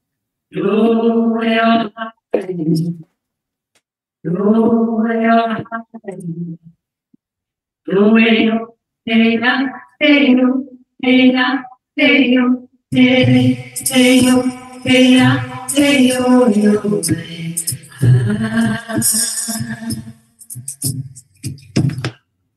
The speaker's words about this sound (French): c'est un chant euh, apache